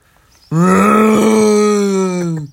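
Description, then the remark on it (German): A voice imitates a monster's growl, one sustained low, rough groan lasting about two seconds, loud, starting abruptly after a short quiet and fading slightly at the end. “Da kam kurz der Rancor durch.”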